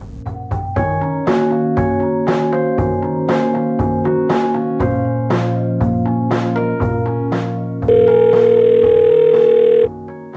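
A telephone ringing tone from an outgoing call: a steady electronic tone holds for about two seconds near the end, following a rhythmic, beat-driven musical passage.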